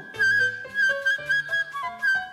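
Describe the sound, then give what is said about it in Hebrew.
A short whistled imitation of a bird chirping from the top of a cypress tree, a bright tone running through a quick phrase of several notes, heard over a soft melodic accompaniment with no talking. “מי? ציפור! אומרת הציפור מעץ הברוש.”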